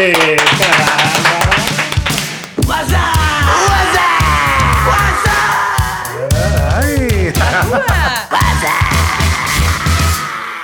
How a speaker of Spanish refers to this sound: Ha jugado en varios equipos, pero mejor vamos a recibir con un gran aplauso Ismael Iñiguez.